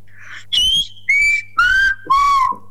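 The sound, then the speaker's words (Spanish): Four sustained whistled vowels in Silbo Gomero, whistled in order from high to low pitch like a musical arpeggio, each a clear, loud note stepping lower than the last, separated by short pauses, with a soft breathy hiss before the first. “Casi que esto es un curso de Silvo Gomero por radio.”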